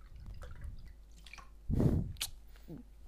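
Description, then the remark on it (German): A short splash of a drink being poured into a glass, lasting under half a second, with a few faint drips and light clinks around it against a quiet background. “gießt uns gerade ein bisschen”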